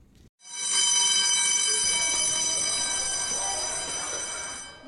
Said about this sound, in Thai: ทันทีที่ได้ยินเสียงกริ่งสัญญาณเตือนภัยติดต่อกัน 3 ครั้ง เด็กนักเรียนระดับอนุบาล จนถึงมัธยมศึกษาตอนต้น โรงเรียนบ้านวาเล่ตำบลวาเล่อำเภอพบพระจังหวัดตากกว่าร้อยคน จะวิ่งไปยังอาคารหลบภัยของโรงเรียน